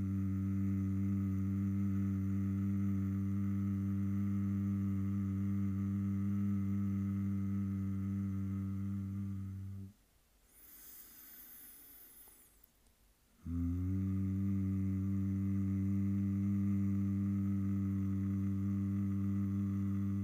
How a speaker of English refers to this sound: join in with me, making the M sound as well. Mm.